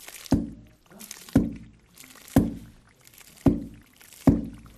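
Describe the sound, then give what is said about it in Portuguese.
Vinegar being stirred by hand in a large vat in a courtyard in Vila Satã, Ningxia Hui Autonomous Region, China, during traditional fermentation: five regular sloshing strokes about a second apart, each a splashy swish of liquid that quickly fades. “Todos os dias, o som do vinagre sendo mexido soa no pátio.”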